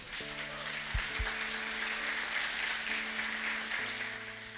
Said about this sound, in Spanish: Y primeramente vamos a darle también como iglesia la bienvenida y un fuerte aplauso a aquellos que también nos ven.